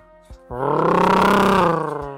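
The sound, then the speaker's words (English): A voice imitates a big lifted truck revving its engine in stop-and-go traffic in Texas, a loud, harsh, buzzing roar that swells suddenly after a short click and holds steady for nearly two seconds before easing off. “And because it's stop and go traffic, and they were constantly de- yeah. hitting their accelerators.”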